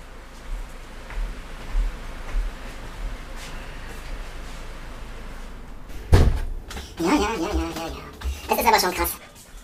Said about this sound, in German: Da mache ich jetzt mal wieder, während ihr das Bild genießt, die Tür wieder zu.